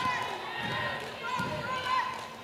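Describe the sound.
A basketball is dribbled on a hard court during a women's basketball game, a few dull, irregular thumps, set against steady crowd murmur in a large arena, with voices talking over it.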